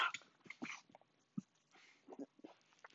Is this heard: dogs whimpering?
yes